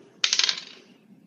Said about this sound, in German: Okay, ich würfle mal.